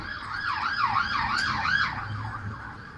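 A police siren warbles in a fast, rising-and-falling yelp, loud, over a low rumble of traffic on a main street, swelling slightly in the middle as it passes.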